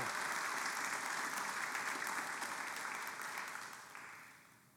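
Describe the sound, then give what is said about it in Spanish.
A church audience applauds the Lord together, a dense, steady wash of many hands clapping that holds strong before gradually tapering off near the end, with no talking over it. “Le damos un aplauso al Señor.”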